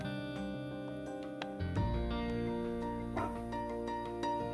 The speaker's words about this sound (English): my dog is barking a little bit, even though it's 12 in the morning.